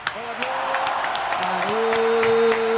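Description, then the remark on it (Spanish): Steady applause from a crowd, a dense patter of claps running the whole time, with a sustained tonal whoop or voice rising above it. “Aplauso cerrado.”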